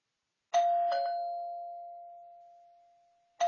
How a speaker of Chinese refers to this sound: 新的一天从叮当叮当的门铃声开始了。乖乖兔打开了门，站在门口的是快递员马大叔。